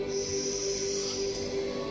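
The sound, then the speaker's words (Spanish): A deep, drawn-out inhalation, a steady airy hiss of breath that holds an even level for about two seconds with no talking over it. “Respirando, inhalo.”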